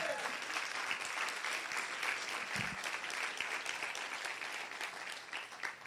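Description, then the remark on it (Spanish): A church audience claps steadily for Jesus for several seconds, a dense, sustained wash of many hands with no voices standing out, holding at an even level before easing slightly at the end. “Y la iglesia dice, dale un aplauso fuerte a Jesús, vamos.”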